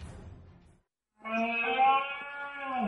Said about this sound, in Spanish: Este es el sonido de la berrea del ciervo.